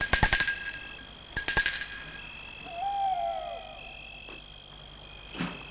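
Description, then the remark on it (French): A doorbell rings twice in quick succession at the front door of a large, old three-storey Napoléon III house: bright metallic chimes with a lingering high tone fading between and after the rings, followed by a soft, falling whistle-like sound and a short rustle. “De nancourt sonne à la porte d'entrée.”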